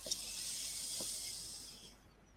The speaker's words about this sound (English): Uh, are you ready? Here we go. Breathing in.